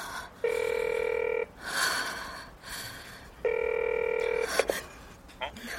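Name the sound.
telephone call ringing tone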